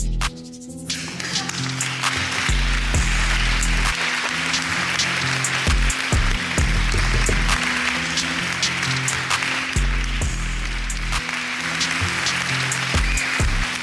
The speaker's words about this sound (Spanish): ¿Y por qué no? ¿Y por qué no? Eh? Aplaudir también al rap, al hip hop.